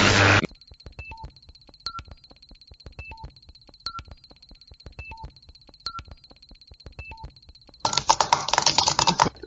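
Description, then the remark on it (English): Rapid, uneven taps on a microphone, dry, over a steady high whine with regular short beeps, framed by loud rustling noise bursts at the start and end. No one speaks. “I know somebody's tapping it.”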